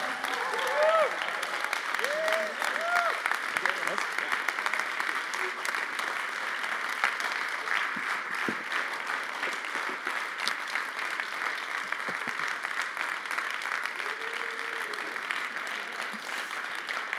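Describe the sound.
Sustained applause from an audience fills the whole stretch, a dense, steady wash of clapping with a few brief cheers or voices rising faintly through it near the start and end.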